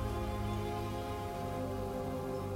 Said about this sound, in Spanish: Los baña ligeramente una lluvia muy, muy, muy sutil.